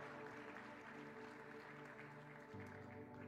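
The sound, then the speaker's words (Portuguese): An audience applauds the Lord steadily for a few seconds, a dense, continuous wash of clapping with sustained musical tones droning underneath. “Aplauda ao Senhor.”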